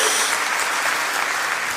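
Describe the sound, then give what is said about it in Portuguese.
An audience claps to glorify God, a dense, continuous wash of applause with no pauses, sustained and fairly loud throughout without any voices standing out. “Pode ser mais alto suas palmas.”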